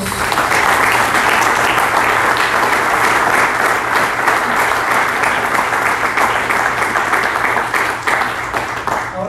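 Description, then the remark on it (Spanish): A crowd applauds God, dense overlapping claps forming a loud, continuous wash of sound that holds for several seconds before thinning slightly at the end. “Puedes aplaudirle a nuestro Dios.”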